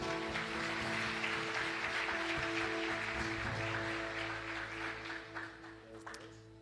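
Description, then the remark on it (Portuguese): An audience applauds in a dense, steady wash of clapping that gradually thins out toward the end, with a low sustained musical drone underneath. “Você pode aplaudir o Senhor pela vida dele?”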